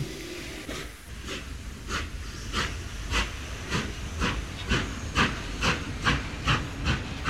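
A steam train hissing and chuffing in a steady, rhythmic series of loud bursts, roughly two or three a second, with a continuous rushing hiss underneath and no voices.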